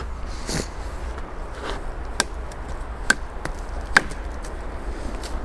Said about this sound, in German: Auch das Klopfen des Holzes auf so einen Stamm, das gehört auch irgendwie dazu.